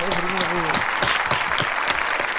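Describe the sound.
A burst of applause with many hands clapping in a dense, steady patter, while a voice speaks briefly at the start over the clapping.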